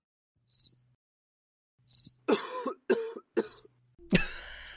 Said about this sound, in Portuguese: Não é cigarra, é não. é grilo.